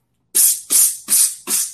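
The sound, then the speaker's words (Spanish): Four short, loud hissing blasts from an aerosol insect spray can used to kill cockroaches in a house in Miami, evenly spaced in quick succession, each a sharp pressurized spritz with no voices around them. “yo las mato con, yo las mato con spray”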